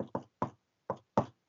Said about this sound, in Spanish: Sí, eso es un ruido de los nudillos en la mesa, mira. Estoy haciendo así en el mostrador.